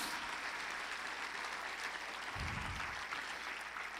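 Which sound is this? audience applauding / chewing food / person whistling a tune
audience applauding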